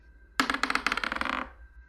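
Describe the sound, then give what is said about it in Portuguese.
Dice clatter across a hard surface in a quick burst of sharp, bright clicks, about a second of rattling that slows and fades, with a faint steady tone humming underneath and no talking; everyone is rolling dice for stealth checks in a tabletop role-playing game. “Então todo mundo rola uma aí. É, todo mundo rolando furtividade.”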